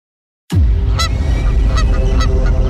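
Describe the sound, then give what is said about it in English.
Geese honk several times over a steady, heavy roar of background noise; the honks are loud, harsh and irregular, starting abruptly after a brief silence, as from a flock. “When a flock of geese knocked out two engines on U.S. Airways Flight 1549 right after takeoff from LaGuardia Airport, who would you want in the cockpit?”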